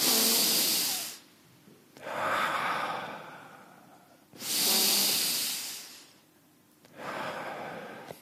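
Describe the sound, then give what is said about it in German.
Two cycles of deep breathing: a strong, rushing inhale followed by a softer, longer passive release of breath with no active exhaling, repeated in a steady rhythm with no talking. “Sie geht so 30 bis 40 Mal tief einatmen und loslassen. Kein aktives Ausatmen.”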